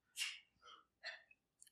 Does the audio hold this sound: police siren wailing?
no